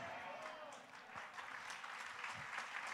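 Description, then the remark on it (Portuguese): An audience claps together for Jesus in a steady, dense wash of applause that holds at an even level for the full three seconds, with a murmur of voices mixed faintly underneath. “Aplauda Jesus vem força para ele.”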